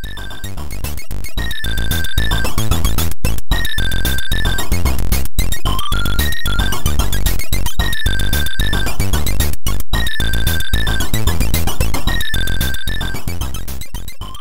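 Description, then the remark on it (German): Chiptune-style C64 intro music of the video game Maniac Mansion: bright, steady synthesized square-wave melodies with arpeggiated tones over a punchy, rhythmic beat, loud and continuous with no talking. “Ich kenne ja alle möglichen Intro-Varianten, wovon C64 das einzig wahre ist.”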